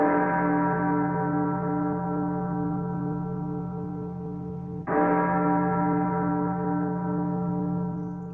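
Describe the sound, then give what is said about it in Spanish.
A deep church bell tolls slowly at midnight, two resonant strokes several seconds apart, each ringing out and fading with a long humming decay, with no voices present. “Cuando sonaban las campanas, dando la medianoche”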